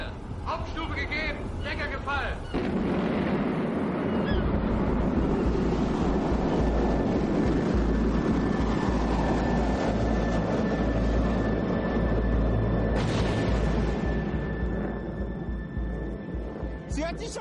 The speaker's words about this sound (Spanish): Sábado 3 de octubre de 1942. Werner von Braun y sus pagadores del ejército esperan el lanzamiento del prototipo de su último misil.